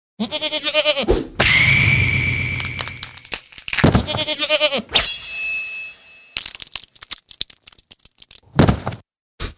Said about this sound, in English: Get this motherfucking goat out of here.